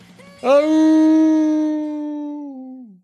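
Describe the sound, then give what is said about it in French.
A person howls like a mournful dog, one long sustained note held for a couple of seconds, loud, then sliding downward as it fades out. “Je n'ai plus aucun espoir d'être publié un jour, rajoute Froussin héros des neiges, avant de hurler à la mort.”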